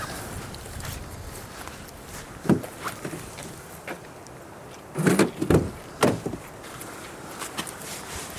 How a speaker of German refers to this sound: Boah, jetzt bin aber in die Schlacke hier getreten.